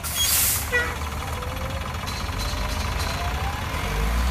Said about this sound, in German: Dann setzt sich der Bus um exakt 19.15 Uhr in Bewegung. Trainer Thomas Tuchel nimmt ganz vorne Platz. Die meisten Spieler sitzen alleine im 480 PS Teambus mit seinen schwarz-gelben Ledersitzen.